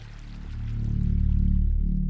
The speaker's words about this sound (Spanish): en cualquier caso, el agua del río fluía y era ancho, anchísimo, pero parecía estancado, como si algo estuviera obstruyendo.